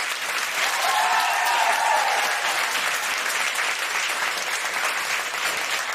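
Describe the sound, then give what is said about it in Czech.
A crowd at a live event applauds a guest's arrival, dense clapping filling the space at a fairly loud, even level for several seconds, with a faint cheer or whistle briefly rising above it early on. “přichází doktor Groman. Aplaus!”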